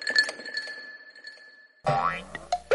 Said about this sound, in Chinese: 砰的一声，不知道从哪儿冒出来一个可乐瓶，正好砸在谢蒙浩的头上。